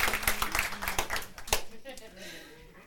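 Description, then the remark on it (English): A crowd applauds with a dense burst of clapping that fades after a second or two, giving way to a voice speaking. “So can you guys please give her a round of applause?”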